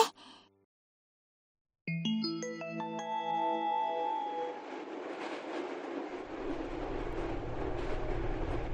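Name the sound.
train running on rails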